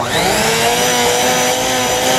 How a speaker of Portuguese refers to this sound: É uma serra? Será? É um aspirador? Um ventilador, gente. Nossa, o ventilador. Nossa, o ventilador tá, vai, vai explodir.